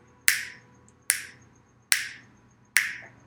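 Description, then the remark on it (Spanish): Four sharp finger snaps made by a preacher during a sermon, in a steady, evenly spaced rhythm, each a bright crisp crack that fades quickly, with no talking in between. “Porque la vida, cada cuatro chasquidos que estoy haciendo, una persona se está muriendo en el mundo.”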